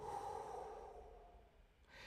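A single slow breath drawn in through the nose, a soft airy hiss lasting about two seconds, fairly quiet, with no talking.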